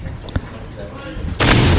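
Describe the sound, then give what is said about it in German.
A man speaks quietly, then a single ceremonial black-powder salute mortar, a pot-like vessel filled with powder and ignited, fires with a sudden, loud boom whose blast fills the final half-second; it is one shot in a series. “Es ist schon wieder vorbereitet auf den nächsten Schuss.”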